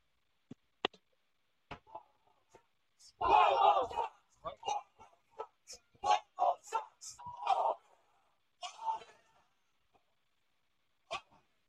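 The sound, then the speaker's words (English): A protest crowd shouts in loud, ragged bursts after a man's arrest, voices overlapping in angry outcries between brief pauses, with a few sharp clicks and knocks scattered before and after. “And when they did, a crowd of people decided they'd had enough.”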